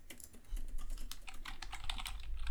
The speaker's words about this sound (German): Tastatur, warte, ich tippe mal was. Hört man meine Tastatur? Ich tippe auch mal eben was.